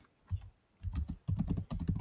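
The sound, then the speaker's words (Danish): Rapid computer keyboard typing, clear, in short bursts of quick clicking keystrokes separated by brief pauses, with no voices present. “Så jeg, jeg skriver, prøv jump, junk media for eksempel”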